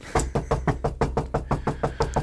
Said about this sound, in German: Klopf auf Plastik.